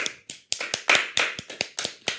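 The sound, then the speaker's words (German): Hands clapping, about a dozen sharp, bright claps in a quick, slightly uneven rhythm, moderately loud and with no voices over them. “Klatsch jetzt!”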